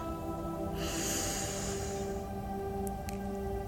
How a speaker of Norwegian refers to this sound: Sett deg i en behagelig stilling og trekk pusten dypt inn gjennom nesa.